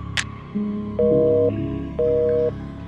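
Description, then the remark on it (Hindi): A desk telephone in Kolkata rings on 14 August with two short electronic tone bursts, each about half a second long and a second apart, heard over a low, steady musical background. “यहां से करीब 200 किलोमीटर दूर कोलकाता में 14 अगस्त उन्नीस मिठुन की डेस्क पे फोन की घंटी बजी”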